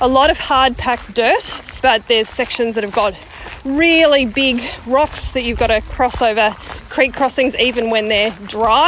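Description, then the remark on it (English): A steady, high-pitched drone of cicadas hums without a break behind a man talking, faint but constant from start to end. “you might be able to hear the cicadas in the background.”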